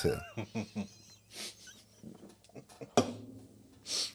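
A dog lets out a quick run of short, whiny yelps, then breathes and huffs in a few rough, breathy bursts, fairly close and at moderate volume, with no talking.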